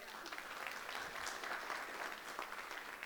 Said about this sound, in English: But I think it also has a lot to do with what God is doing at Bayshore Community Church. Amen. You can clap for that.